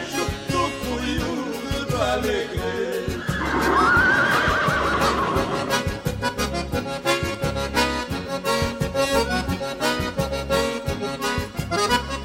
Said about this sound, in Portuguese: Para amansar a ceguada, não é preciso ginete, basta apenas um relincho.